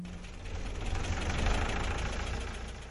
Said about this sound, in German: Das Förderband wird angestellt und das Überladen beginnt.